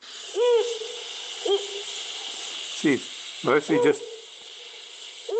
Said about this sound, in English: So you can actually hear this is the call of the Cape Eagle Owl.